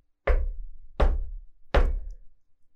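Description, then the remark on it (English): Three firm knocks on a door, evenly spaced about three-quarters of a second apart, each with a solid low thud and a short ringing decay, fairly loud with no voices. “Two or three steps from the top, while I'm still telling him my experiences, we both heard three distinct knocks on the door.”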